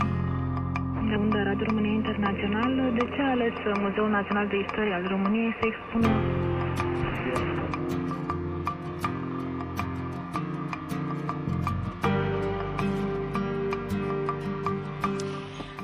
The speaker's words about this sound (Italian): ed è entrato con i suoi suoni, con le sue interferenze appunto, che ci portano, dicevamo, in Sud Sudan